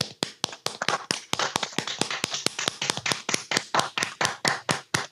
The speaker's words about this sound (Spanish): Pues un aplauso para los sanitarios, joder, de este país, coño, y los del Mercadona.